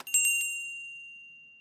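A small lever-operated dining room bell in a historic house museum rings out clearly, struck a few quick times in succession before one bright metallic tone lingers and slowly fades away.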